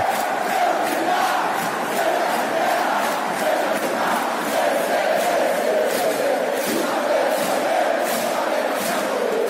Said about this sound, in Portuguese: Então, galera, agora que nós já ouvimos um pedacinho do hino antigo, vamos saber um pouco sobre a história do hino da torcida.